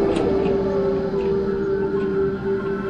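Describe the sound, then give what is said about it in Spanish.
A helicopter approaches, droning loudly and steadily, heard from the top of the tallest building while the wind blows, its engine whine holding a sustained pitch over a rough, rumbling wash of noise throughout, with no voices heard. “Aquí viene el helicóptero.”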